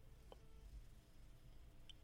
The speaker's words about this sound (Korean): 아 전화가 예, 끊겼어요 예, 예. 아 예예. 예. 어, 의원님 제 말씀 잘 예, 들리시나요? 예예 잘 들립니다. 아 예, 전화가 잠깐 끊어졌습니다.